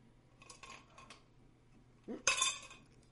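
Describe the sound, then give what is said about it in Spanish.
A drinking glass that had water in it clinks and clatters loudly in one sharp burst of bright, ringing clatter, after a few lighter taps against a faint steady hum. No one speaks. “Puta madre, güey, pinche vaso. Ya tenía agua el vaso.”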